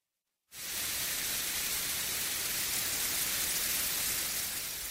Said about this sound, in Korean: 바람 소리나 물 흐르는 소리처럼 들리는 이 소리는 백색 소음이라고 부르는 일종의 잡음입니다. 주변에서 흔히 들을 수 있는 여러 가지 잡음을 섞어서 만든 인공 소음인데요.